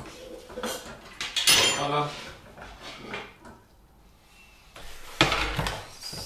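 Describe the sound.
Kitchen utensils clatter and a cutting board is set down for chopping half an onion, with loud knocks around the middle and again near the end, plus some quieter rummaging and faint voices between.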